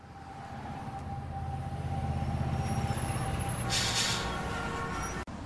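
Busy downtown street traffic in central Rio de Janeiro, with a steady, loud engine rumble from a bus or truck and a short sharp hiss of air brakes releasing near the end.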